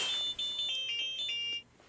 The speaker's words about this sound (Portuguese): Ah, esse é o meu alarme me avisando que eu tenho que.